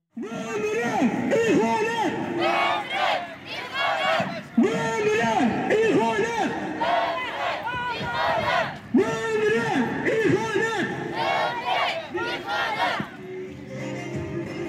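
A crowd of demonstrators chants slogans in loud, rhythmic unison, the call repeating in bursts over steady crowd noise, close and continuous throughout.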